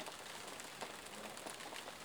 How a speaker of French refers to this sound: Et avec cette douce pluie rafraîchissante qui vous accompagnera toute la nuit